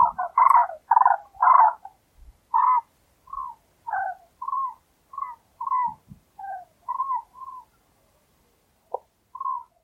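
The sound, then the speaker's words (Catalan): Common cranes at a lagoon trumpet in a rapid series of rolling, bugling calls, the first few loud and full, then a steadier run of shorter calls, with no voices. “Lo guai, el que mola és com el soroll també, oi? Sí, el so que les trompetes.”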